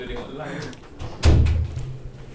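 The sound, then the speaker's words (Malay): A door opens with a click of the handle and a solid wooden thump that rumbles briefly as someone comes in during a recording, following a stretch of muffled talking. “Tengah record orang masuk COD Boleh COD Bunyi dengan bunyi Pintu Tombol pintu semua ada Sangat profesional”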